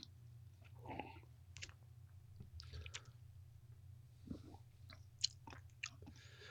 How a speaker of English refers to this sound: Um, I'm gonna take another sip.